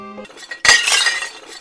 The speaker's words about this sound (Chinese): 你们给我听着，给我随时捧着上好的瓷器，只要公子一哭，你们就给我往地上砸。